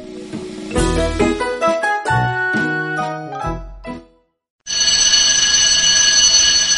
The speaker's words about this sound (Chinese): 星期一的早晨，闹钟响了一遍又一遍，熟睡的小猪终于被吵醒了。